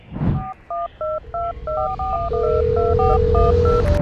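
A soft thump, then a quick run of about ten telephone keypad dialing tones, each a short, clear electronic beep, as someone dials a phone to reach people in the Sunshine State, followed by a steady held tone over a low background rumble.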